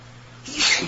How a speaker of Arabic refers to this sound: يرحمك الله